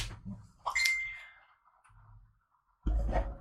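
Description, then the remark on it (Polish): A notification beep from an internet device: a bright electronic ding rings out once, a clear high tone with a short ringing tail, followed by a brief low rumble and then a louder burst of noise at the end. “A ja wyłączam internet, żeby nam nie pikało.”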